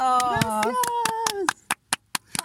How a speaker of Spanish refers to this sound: Perdón, le hice bosta la canción, pero me, hace mucho que la toco. ¡Aplausos!